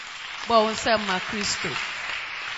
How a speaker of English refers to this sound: Clap for Jesus.